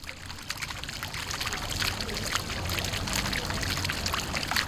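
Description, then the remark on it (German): Steady water from a fountain in an old town, on Breite Straße right beside a traffic road, pours from its spouts and patters gently onto the ground, a continuous, even splashing with no pauses and no voices. “Gleichmäßig fließt das Wasser aus den Spendern und plätschert sanft auf den Boden.”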